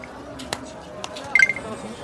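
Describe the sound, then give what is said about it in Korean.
A couple of sharp clicks, then a quick cluster of short, high electronic phone beeps as a son hangs up a call with his father on a handset, over a low background hum. “아버지 아버지 전화 끊겠습니다.”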